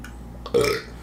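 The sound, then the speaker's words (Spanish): A single short burp, first taken for a sneeze, erupts with a throaty, resonant rumble, lasting under half a second against a quiet background. “Ah, güey, pensé que Está Está estornudar.”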